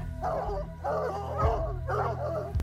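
Search dogs bark in three clustered bursts, moderately loud, some yelps mixed in, over a steady low rumbling background, as they move around a property to pick up a missing child's scent amid heavy wind and rain from Hurricane Andrew in Tupelo, Mississippi.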